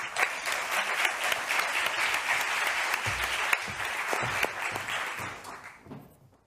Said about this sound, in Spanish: Bienvenidos y un gran aplauso para todos ellos.